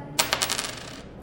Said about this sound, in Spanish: Así suena una moneda de 100.